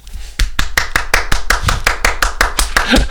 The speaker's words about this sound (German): Applaus.